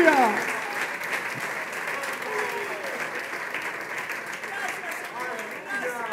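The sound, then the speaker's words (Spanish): An audience applauds the Lord with steady, dense clapping that continues throughout, while voices call out and cheer over the sustained applause. “Dale un fuerte aplauso a tu Señor.”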